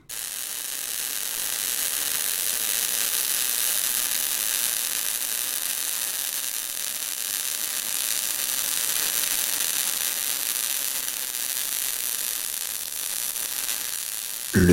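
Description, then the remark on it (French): A dense, steady crackling fills the whole recording, a fine hiss-like patter of countless tiny pops at constant loudness, with no voices and a brief louder burst right at the end. “Alors nous avons déjà parlé du crépitement du feu il y a deux ans, mais des crépitements, il y en a des milliers.”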